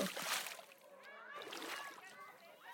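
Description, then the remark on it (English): A single splash of water bursts out at the start, as of someone jumping into a pool, followed by indistinct children's voices and sloshing under the chatter. “Angie arrived at the pool and jumped in the water.”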